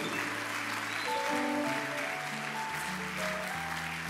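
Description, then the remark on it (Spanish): A church audience claps steadily and continuously during a worship service, a dense wash of applause over sustained keyboard or organ chords that shift beneath it, with no voices standing out. “Dale un aplauso a Jehová no.”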